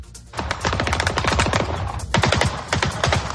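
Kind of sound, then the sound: impact, gunfire shooting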